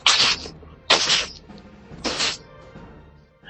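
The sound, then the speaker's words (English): A voice imitates three forceful sneezes in a row, each a sharp, hissy burst with a breathy tail, spaced about a second apart, with no talking. “violent sneezes.”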